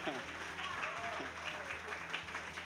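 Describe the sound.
An audience applauds in a dense, steady wash of clapping that holds an even level for a few seconds, with faint voices mingling underneath.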